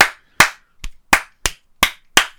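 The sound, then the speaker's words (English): Seven sharp hand claps in a row, spaced unevenly so they drift off any steady beat, imitating a live-show crowd clumsily clapping along who can't clap on four. No talking underneath. “The amount of times I've had to stop a click for like live because people can't clap on four.”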